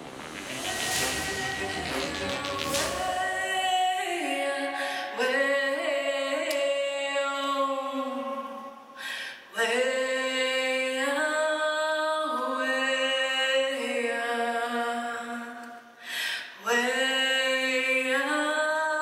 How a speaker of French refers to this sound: Je voudrais qu'on se quitte avec des notes de musique et, de chant.